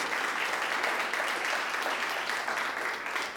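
A crowd applauds steadily for Jesus, a dense, even wash of many hands clapping at once with no pauses, holding a constant loudness for the whole stretch.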